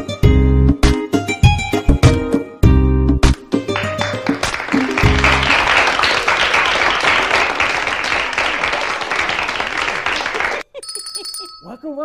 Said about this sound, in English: welcome, welcome. I heard the applause. I didn't know we were on the air. Welcome to the Brooklyn Cafe's midday show.